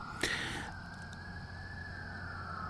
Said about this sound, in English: Well, there goes a uh, ambulance. Hope everybody's okay. Haven't seen any fire trucks or uh, police cars speed by in the distance, so hopefully it's uh, not anything too terrible. Apologize for the sirens there in the background.